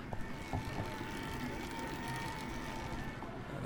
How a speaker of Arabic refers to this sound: صوت الموتور بتاع البشكليطة الموتور الكهربائي